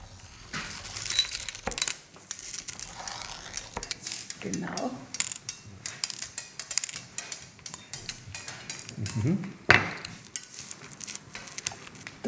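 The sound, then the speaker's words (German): Small colourful glass beads clink and rattle as they are handled and stuck onto glass tree shapes for fusing in a kiln, a steady stream of bright ticks and taps with a few louder clatters, and faint murmuring voices in places. “Bitte da mal bunte Glasperlen auf unsere Bäume draufkleben.”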